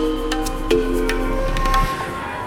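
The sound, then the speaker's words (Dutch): Church bells ring out in Breda in a series of struck notes, each tone sustaining and overlapping the next, with a steady low rumble of outdoor background beneath and no voices. “Terwijl de klokken spelen en wij wandelen door Breda,”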